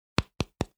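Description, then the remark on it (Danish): Three quick, crisp knocks on the plastic back of a phone, evenly spaced, each a short hollow tap that dies away fast, with no talking. “Bagsiden på den her telefon er i plastik.”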